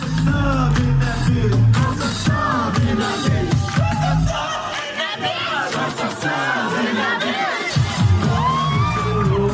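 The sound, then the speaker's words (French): A large, loud concert crowd cheers and shouts continuously, many voices overlapping in excited yells and whoops, as a performer arrives on stage with two dancers. A thumping low bass drops out briefly midway, then returns under the roar. “débarque avec deux danseurs, drop top sur les épaules, bonnet sur la tête, il va littéralement retourner le public.”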